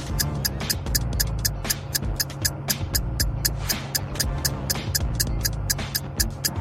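A steady, crisp clock tick from a countdown timer for solving a riddle repeats about three times per second, sharp, layered over a continuous low, droning musical bed with no talking.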